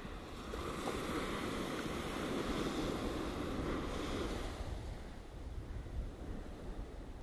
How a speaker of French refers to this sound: Cette relaxation est maintenant terminée, mais je vais te laisser encore quelques instants avec ces vagues.